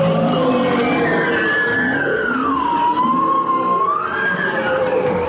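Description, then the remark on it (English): Bowhead whale calls under Arctic ice: long, wavering moans that glide down in pitch and climb back up, overlapping fainter calls over a steady underwater hiss, with no talking. “In the waters underneath the Arctic ice, there's a world of sound that's rich with the calls of many marine mammals, including the bowhead whale.”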